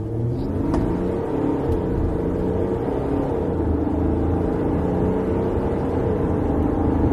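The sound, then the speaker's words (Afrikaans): A Mercedes X350d pickup truck engine drones loudly and steadily throughout, a deep continuous rumble with a faint whine on top as it pulls strongly and accelerates, with no voices. “Die X350D se gesofistikeerde masjien trek sterk teen enige eenheidspoed.”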